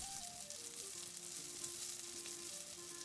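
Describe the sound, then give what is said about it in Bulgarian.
Breaded fillets, coated in flour, egg and breadcrumbs, are dropped one by one into hot oil or butter and fried on both sides until crisp and golden, a dense, continuous sizzle, crackle and hiss with no talking. Faint tonal hums drift underneath the frying. “Потапям ги едно по едно в сгорещено олио или масло и пържа до готовност от двете страни.”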